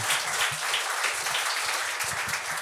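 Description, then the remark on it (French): A crowd applauds a comedian steadily, a dense continuous patter of many hands clapping at an even loudness for a couple of seconds, with no voices on top. “on peut l'applaudir, il est très bon.”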